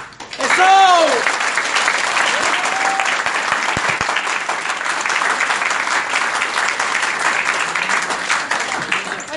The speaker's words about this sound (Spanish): Quiero que le dé unas fuertes palmas, nos va a explicar hoy día por qué NAO y rentabilidad